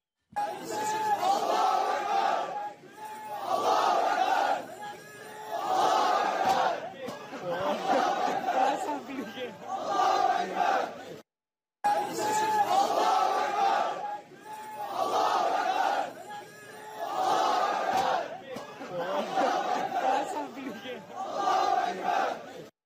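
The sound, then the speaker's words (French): Dozens of students loudly chant "Allah Akbar" while disrupting an anti-homophobia workshop organised by the Atlas college in Genk. The chanting comes in repeated rhythmic bursts, voices rising and falling together, with a short pause midway before it resumes. “des individus ont mené une action homophobe en criant Allah Akbar”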